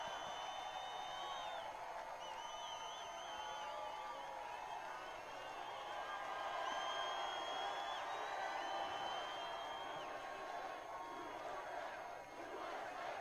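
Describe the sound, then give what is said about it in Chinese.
A large crowd chants "USA" and shouts together in a steady, sustained roar of many voices, loud and continuous for the whole stretch, with rising and falling vocal tones. “民众现在大喊 “USA””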